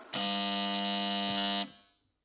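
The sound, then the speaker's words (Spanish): A doorbell at the front door of a house rings as one long, harsh electric buzz, steady and loud for about a second and a half, then cuts off with a brief fading ring. No voices. “Sonó el timbre.”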